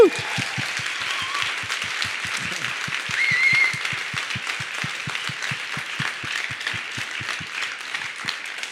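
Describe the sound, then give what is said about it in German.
A large church audience at ICF München applauds and cheers continuously for several seconds, the clapping fairly loud and full, with a steady rhythmic thumping pulse running underneath. “Lass uns Applaus geben all diesen Leuten.”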